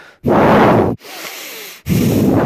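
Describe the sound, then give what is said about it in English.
A voice imitates a Tyrannosaurus's heavy, rasping breathing: two loud, drawn-out breaths separated by a quieter airy exhale, with no talking. “He could feel the ground shaking with each footstep, and pretty soon he could hear its breath”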